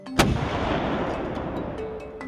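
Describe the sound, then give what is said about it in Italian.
A single heavy artillery cannon blast bursts out near the start, followed by a long rumbling roll and echoing reverberation that lingers to the end, with faint thuds in the background. “Si trattava di calcoli balistici che dovevano incrociare un'enorme quantità di variabili che dipendevano da vento, peso, traiettorie, per stabilire gli angoli a cui i cannoni dovevano sparare”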